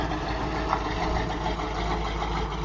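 A pickup truck engine, just started, idles with a steady, low, even rumble that holds without change for the whole stretch, with no voices over it. It is a rainy day.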